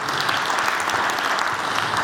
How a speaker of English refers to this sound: Thank you so much, worship team. Wonderful. Let's clap our hands for the worship team.